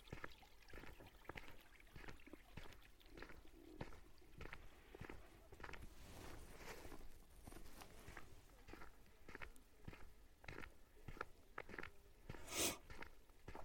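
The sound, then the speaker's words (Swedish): A small brook running beside a road trickles and gurgles steadily, a soft continuous wash of water with scattered crisp clicks and crunches on top, like footsteps passing. No one speaks. “Nu kanske du också hör en eh, trotsig liten bäck som rinner här vid sidan av vägen.”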